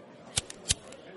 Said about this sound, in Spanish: Jiménez lanzó un encendedor a Alberto. Este lo encendió un par de veces para comprobar que funcionaba